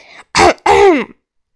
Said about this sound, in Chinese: 我如同见到了救星，感激的对他竖起大拇指，然后使劲清了清嗓子。